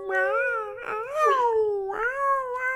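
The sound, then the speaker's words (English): A person imitates a wolf howl: long, wavering wails that slide up and down in pitch, in three connected bursts, fairly loud. “I don't really know what wolves sound like.”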